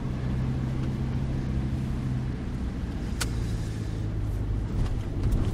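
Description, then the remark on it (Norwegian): Steady low rumble of a car's interior while driving toward Østfold, a constant engine drone and road noise filling the cabin, with a brief sharp tick partway through and no talking. “Hvor er vi på vei nå”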